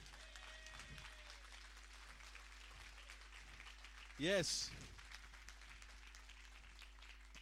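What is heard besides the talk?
audience applause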